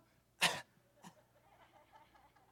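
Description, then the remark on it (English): A single sharp, deliberate-sounding fake cough bursts out, followed by a smaller throat sound and faint murmuring in the background. “And then you pretend you were coughing?”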